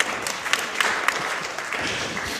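A live audience applauds steadily, a dense wash of many hands clapping at once with a few sharper claps standing out, fairly loud and continuous throughout.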